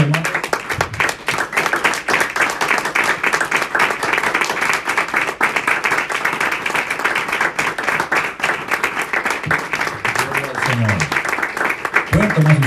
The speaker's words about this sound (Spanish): Le vamos a dar un aplauso más al Señor,